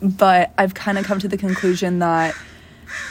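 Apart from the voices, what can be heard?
crow cawing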